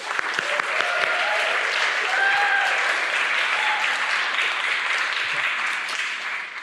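Sustained audience applause fills the room, a steady dense patter of many hands clapping at an even loudness, with a few faint voices or whoops briefly rising above it.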